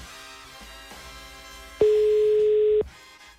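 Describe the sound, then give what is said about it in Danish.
A phone ringing tone sounds once, a steady mid-pitched beep lasting about a second, loud against a faint background hum. “Så nu ringer den.”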